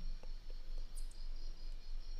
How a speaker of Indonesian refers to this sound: Waktu sudah menunjukkan pukul 19.55. Suasana malam di desa ini sangat sunyi, sepi, dan hanya terdengar suara jangkrik.